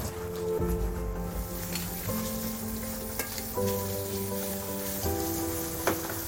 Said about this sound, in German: Pfeffer wird tostiert, dann Olivenöl und Garnele rein.